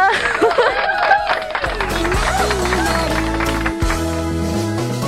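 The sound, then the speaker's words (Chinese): A burst of crowd applause and cheering fills the whole few seconds at a steady, loud level, a dense clatter of clapping mixed with voices and a sustained tonal background. “好，给自己掌声。”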